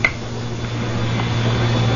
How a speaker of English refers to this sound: I'm going to count to three. And when I snap my fingers, you'll wake up. One, two, three.